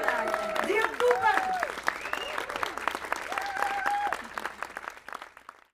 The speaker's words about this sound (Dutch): Jongens, wij, wij staan voor jullie, zijn heel dankbaar. En eh, geef ze nog een keer een heel groot applaus.